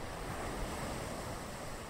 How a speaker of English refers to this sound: Wow, … recorded right there on the Mediterranean Ocean. …, I can just see those dark blue waves and the azure sky as you were speaking there to our group.